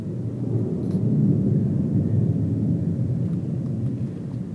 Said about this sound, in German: Im Zentrum von Camerino ist es totenstill. So still, dass man die Flugzeuge am Himmel hört, wie ein fernes Grollen.